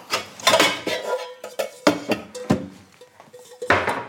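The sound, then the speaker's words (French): A large metal cooking pot clanks and scrapes as it is handled while water is put in it to heat for cooking peas, with repeated sharp knocks and rattles over about four seconds, moderately loud, with no talking. “On va mettre pour les petits pois euh, de l'eau à chauffer dans une grande casserole.”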